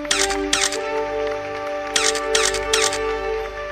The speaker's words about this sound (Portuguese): Por favor, aplausos para ele com direito a flashes também.